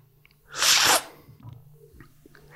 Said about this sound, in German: nun geht es darum, den Kaffee, also den Inhalt des Löffels, sprich den Kaffee, irgendwie darunter zu bekommen. Und das machen wir mit Schlürfen, also mittels ausatmen, weil nur dann können wir ganz tief einatmen. Führen den an den Mund und schlürfen.